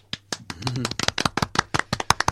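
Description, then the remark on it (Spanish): One person on a radio program claps their hands briskly in applause, about fifteen sharp, bright claps in a slightly uneven rhythm, with a faint voice murmuring briefly under the early claps. “tengo que aplaudir, espérate.”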